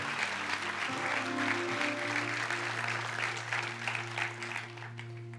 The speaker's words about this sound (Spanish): Dele un fuerte aplauso a Dios por ello.